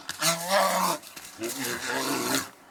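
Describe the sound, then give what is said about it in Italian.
A bear growls twice: two loud, gruff, throaty roars, each about a second long, separated by a brief pause. “L'orso è un animale che parla poco, eh, però una curiosità, il verso dell'orso si chiama ruglio.”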